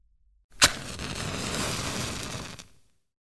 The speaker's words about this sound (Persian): کبریت زدم